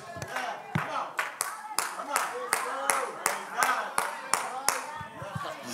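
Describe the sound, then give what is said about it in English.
An audience claps together in a steady rhythm, about two sharp, loud claps per second, with a voice talking faintly underneath. “You can clap and clap until you go home until your hands turn red.”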